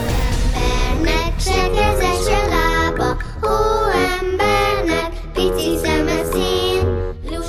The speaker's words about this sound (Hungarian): a tél legkedvesebb oldalát mutatja a dalocska, de azért nem mindenki örül neki ennyire.